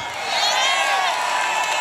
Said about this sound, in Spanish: Vamos, vamos, un aplauso.